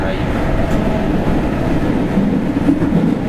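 A JR 207 series commuter train running along the rails between Hanaten and Amagasaki in the Osaka area, a steady low rumble and rattle heard from inside the car, continuous and fairly loud with faint murmuring underneath.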